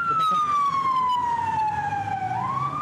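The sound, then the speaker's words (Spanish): A loud ambulance siren wails, its tone sliding slowly down and then climbing again over a low rumble of traffic noise. “Uy, ambulancia,”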